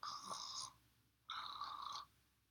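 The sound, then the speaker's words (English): A woman pretending to sleep makes two soft, evenly spaced snoring breaths, each lasting well over half a second with a pause between, low and gentle, with no talking. “She closed her eyes tight and turned her breathing to a low, regular, gentle snore.”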